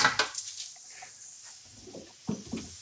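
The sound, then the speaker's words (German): Roasted beetroot crackles on a hot baking tray just lifted out of the oven, a faint, steady hiss dotted with irregular small pops and ticks, plus a couple of soft metallic clunks toward the end. “Und das knistert spektakulär.”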